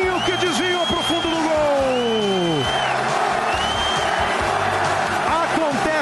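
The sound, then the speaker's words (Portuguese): A crowd of Palmeiras fans cheers a goal, an equaliser from a Marcos Assunção free kick deflected in by Betinho, in a loud, continuous roar, with shouts and sliding, wavering voices rising and falling above the dense din for several seconds. “A torcida do Palmeiras comemora o desvio.”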